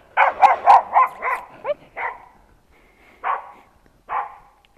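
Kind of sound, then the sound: animal, small dog barking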